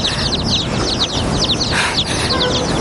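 Several live baby chicks, falling from an apron, chirp and peep continuously, many high, quick cheeps overlapping in a busy chorus over a steady background hiss, with no one speaking.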